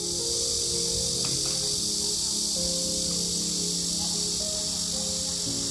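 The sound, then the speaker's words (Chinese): A dense, steady chorus of insects, likely cicadas, buzzing loudly in a continuous high-pitched drone from a big tree beside a park at a city bus stop on a summer morning, recorded on a phone, with a low rumble of background noise underneath and no voices. “然后有一天早上啊，旁边的大树突然传来这样的声音，”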